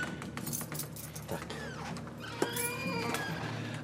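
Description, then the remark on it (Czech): Metallic jingling and scraping like keys rattling, with a distinct sharp click partway through as a door handle is tried, over a low background hum. “My teď eh, bereme za kliku do bešky.”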